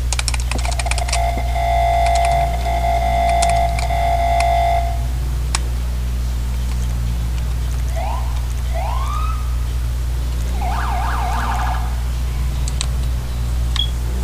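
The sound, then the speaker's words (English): A newly replaced siren being tested sounds over a steady low hum, cycling through its stages: first a sustained tone for several seconds, then short rising wails and a warbling burst. No one speaks. “That's to be fair that siren sounds so much better stage ones.”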